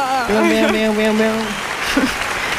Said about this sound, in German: Den Applaus müsst ihr jetzt ganz laut machen.